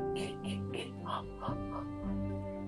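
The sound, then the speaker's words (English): A voice imitates a horror-movie killer stalking someone through the woods: a run of about six quick, breathy whispered syllables in a steady rhythm, with low background hum underneath. “You know, you're, you're definitely moving and turning, and all you can hear within the woods and, in the foliage is just the”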